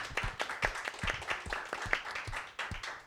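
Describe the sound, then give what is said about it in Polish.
Applause from an audience for a guest of the show: many hands clapping in a steady, dense patter of sharp claps that holds at a moderate level for about three seconds, with no talking over it. “Wielkie brawa.”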